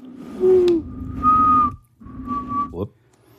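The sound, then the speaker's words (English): A person whistles a birdlike call through a curled tongue: three fairly loud bursts with sustained steady tones and a brief rising chirp at the end, over faint breathy background noise. “I, I, do that with my tongue, man. I curl my tongue.”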